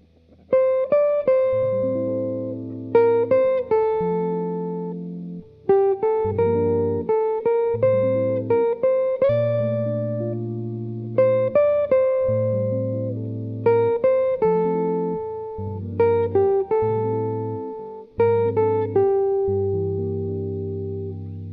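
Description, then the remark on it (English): A short melodic phrase played on a keyboard-like instrument, accompanied by dominant seventh chords that shift beneath the tune in steady blocks. The notes strike crisply and decay, with no voices present. “As mentioned earlier, the chords added, the harmonization, totally changes the mood, feel, and color of the phrases.”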